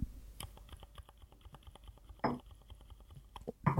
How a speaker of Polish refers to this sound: dobra, wezmę drugą klawiaturę i to będzie cichy przełącznik dla porównania. Eee o. Więc posłuchaj teraz. To jest, teraz będzie cichy.